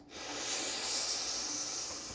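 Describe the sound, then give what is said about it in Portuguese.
A long, deep breath drawn in as part of a guided breathing exercise, a steady airy hiss that swells and holds for about two seconds with no talking. “Então vamos nos preparar vivendo o momento presente com a nossa respiração rotineira por três vezes. Inspira”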